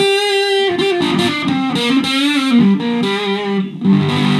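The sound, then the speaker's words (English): Loud electric guitar through a Tone Bender fuzz pedal, with a little buzz on the amp: a thick, buzzy held note gives way to a run of saturated notes moving up and down, with no talking over it. “And, and honestly, uh, I mean, a little buzz on the amp, but it's got that tone bender thing.”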